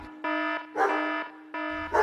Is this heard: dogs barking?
yes